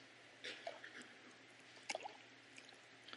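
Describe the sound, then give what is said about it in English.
Oil is poured into water: soft liquid glugs and small splashes in two short bursts, fairly quiet, over a faint steady hum with no talking. “You see the bubbles trying to go down into the water.”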